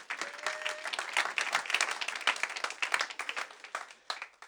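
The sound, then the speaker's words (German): Steady applause from an audience, dense overlapping claps sustained throughout at a moderate level, with a faint brief tone near the start and no clear talking. “Ja, geben wir einen Applaus.”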